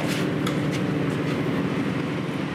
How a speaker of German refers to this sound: Jetzt gehen wir in die Heizzentrale und äh, da steht unter anderem unser Blockheizkraftwerk. Oh, jetzt wird's laut.